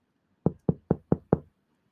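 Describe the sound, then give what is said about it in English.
Five quick, evenly spaced knocks on a door in downtown Bethesda, Maryland, by someone delivering pizza, sharp, rapping in a steady rhythm before everything falls silent. “I think someone's at the door. Can you let him in?”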